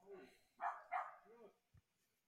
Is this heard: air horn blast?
no